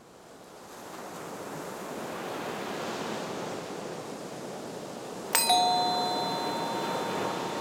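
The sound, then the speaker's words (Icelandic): Ocean waves breaking in a steady, broad rushing roar that swells in at the start and holds, with a single bright bell-like chime ringing out and fading about two-thirds through. “Það er bara alveg hár rétt, öldu niður.”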